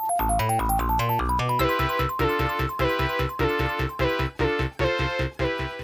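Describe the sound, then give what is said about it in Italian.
An isolated Mega Drive FM synthesis part plays alone: bright, metallic synth tones in a quick, steady rhythmic pattern over punchy low notes, with no voices. “soltanto la parte di FM, di modulazione in frequenza.”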